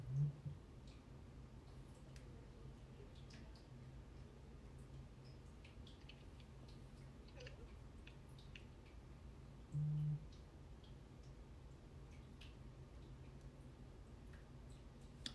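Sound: speaker drinking water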